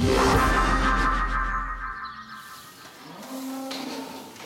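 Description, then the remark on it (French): Limousin beef cattle lowing loudly in a barn on a family farm in France that keeps 200 Limousin cows, a long deep moo followed by another after a brief pause, with a rough, echoing quality. “Chaque jour, lui et son frère s'occupent de leurs 200 vaches limousines, une race à viande destinée aux boucheries et grandes surfaces.”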